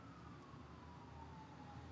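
An ambulance siren wails steadily as it passes, its tone gliding slowly downward over a rumbling traffic background, fairly loud and with no voices.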